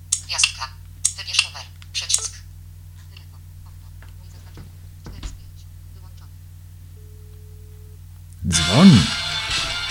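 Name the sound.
telephone ringing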